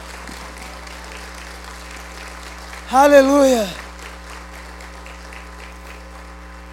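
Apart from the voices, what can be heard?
audience applause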